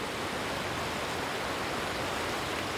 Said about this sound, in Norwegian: Snøsmelting i fjellet er i full gang. Elva som renner gjennom Sogndal sentrum, er stor og kraftig.